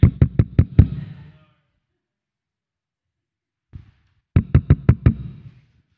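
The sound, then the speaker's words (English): Two quick bursts of about five sharp knocks each, rapping on a door, fairly loud, separated by a few seconds of quiet with one soft thud between them. A reenactment of a neighbor knocking on the door on New Year's. “you need to go get the door because I'm going to lose it.”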